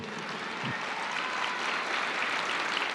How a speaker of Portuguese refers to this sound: A gente pode aplaudir, que Deus que mandou.